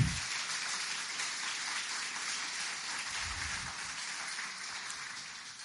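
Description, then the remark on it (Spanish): A crowd at a Spanish-language sermon claps steadily together as applause for Jesus, a dense, even wash of applause that holds at a moderate level for several seconds with no voices heard over it. “Dar un aplauso a Jesús.”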